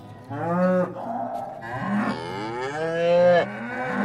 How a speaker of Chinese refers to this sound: 宝咖咖和多多在圣殿看到了， 哦，好多牛哦，多多。